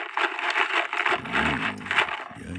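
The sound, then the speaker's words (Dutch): A box of thousands of small loose plastic parts for a model house kit being shaken, a continuous clattering rattle in uneven bursts, while a man speaks over the second half. “Ik zal er even mee rammelen.”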